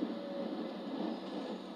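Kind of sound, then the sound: vehicle, train interior ambience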